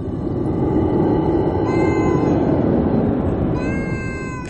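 A cat meows twice, two drawn-out, tonal cries a couple of seconds apart, heard over a steady low rumbling background with no one talking.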